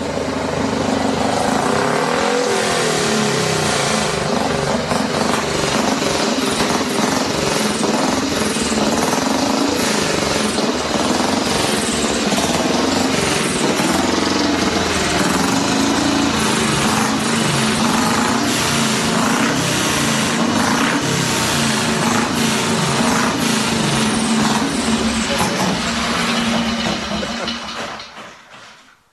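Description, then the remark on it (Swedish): A loud speedway motorcycle engine, just started in a garage, roars continuously for nearly half a minute, its harsh, buzzing revs rising and falling, then cutting off abruptly at the end. “Nu har Harry dragit igång hojen här och jag gick ut ur garaget.”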